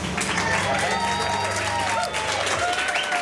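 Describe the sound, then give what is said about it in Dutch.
A crowd claps steadily in a dense, continuous wash of applause at MVO Nederland's New Year's event in the Fokker Terminal in The Hague, with many voices chattering and calling out underneath throughout. “U hoort het al, we zijn vandaag niet in onze vertrouwde studio in Amsterdam, maar bij het nieuwjaars event van MVO Nederland in de Fokker Terminal in Den Haag.”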